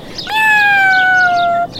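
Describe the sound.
A person imitates a cat's meow with one long, drawn-out cry that holds steady and then dips slightly in pitch. It is loud, with no other talking.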